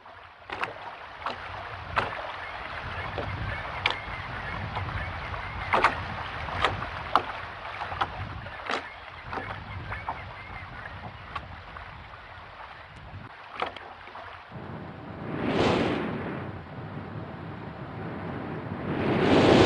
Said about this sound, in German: Und das sind, also wie wir ja jetzt gehört haben, das sind halt viele Geräusche, die Bewegung suggerieren. Das Rauschen der Wellen, Rauschen des Windes.